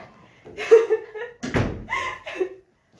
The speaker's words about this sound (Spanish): ¡Ah! ya cierro yo la puerta.